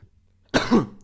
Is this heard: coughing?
yes